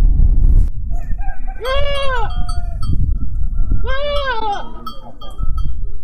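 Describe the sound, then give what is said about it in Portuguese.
A goat bleats twice, two loud, wavering calls a couple of seconds apart, over a steady low outdoor rumble, in the rural area of Granja. “Isso é o som de uma cabra ou um bode, não sei bem.”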